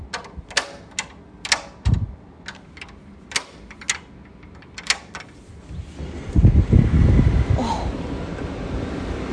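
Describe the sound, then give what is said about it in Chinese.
A door lock clicks and clacks in a quick, irregular series of sharp metallic ticks, about a dozen in all, followed by a steady low rumbling, wind-like noise with no talking. “我也很喜欢这种门锁的声音。”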